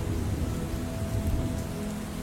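Steady, heavy storm rain hisses continuously while a deep rumble of thunder rolls underneath, with no voices present.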